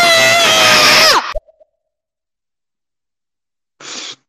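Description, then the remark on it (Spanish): A listener's recorded audio, entered in a scream contest: a loud, high, harmonic scream holds for about a second and then drops off sharply, followed by silence and a short breathy burst of noise at the end. “Este, este ya es otro nivel de grito, me, me, me gusta.”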